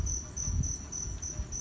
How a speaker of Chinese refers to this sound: 你有听到吗？这个是蛙鸣、蟋蟀的叫声。